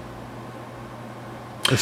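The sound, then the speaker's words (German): Computer cooling fans whir steadily, a constant airy hiss over a low hum that holds level throughout, broken only by a brief louder burst right at the end. “Es ist mein Rechner, Sind der laut rauscht. Nee, Moment, jetzt höre ich tatsächlich, äh, du meinst von den Lüftern.”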